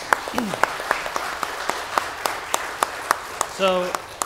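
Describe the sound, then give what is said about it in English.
Scattered, fairly steady clapping from a small audience, sharp individual claps, with a brief voiced whoop or cheer rising near the end; applause again for a performer after a song. “Let's hear it again”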